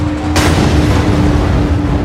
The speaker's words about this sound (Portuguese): temperatura dentro do núcleo não pode mais ser controlada. Chegamos ao momento final. Uma hora, 23 minutos, 45 segundos. Explosão.